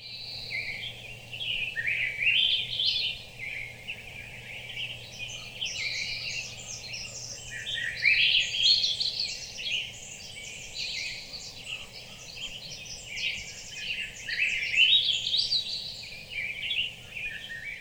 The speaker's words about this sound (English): A few of the species in that chorus that we're hearing there are Swainson's thrush, western tanager, spotted towhee, and Pacific wren.